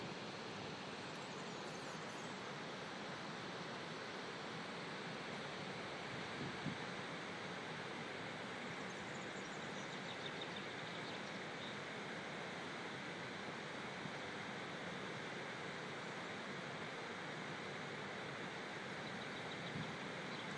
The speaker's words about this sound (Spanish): Quise hacer este micro episodio de paisaje sonoro porque es asombrosamente parecido el sonido de la central nuclear al del mar.